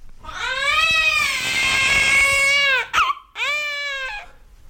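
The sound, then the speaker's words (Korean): A newborn baby boy, just born to the queen, wails loudly, one long sustained cry, a brief catch of breath, then a second shorter cry. No one speaks. “아기 울음소리가 들렸다.”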